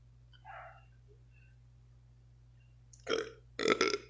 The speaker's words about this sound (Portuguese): Eita porra, um arroto, bicho.